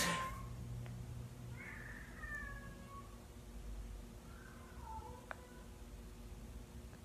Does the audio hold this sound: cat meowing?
yes